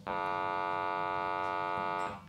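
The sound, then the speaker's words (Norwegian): A sonification of a simulated universe without dark matter: a steady synthetic drone with many evenly stacked harmonic tones, held at constant loudness for about two seconds before cutting off, with no voices over it. “Så hvis vi tar bort den mørke materien, så simulerer vi universet et univers uten mørk materie, så vil det høres sånn ut.”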